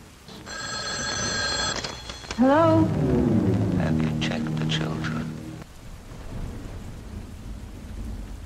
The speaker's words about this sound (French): Un ennui brusquement troublé lorsqu'un coup de téléphone brise le silence.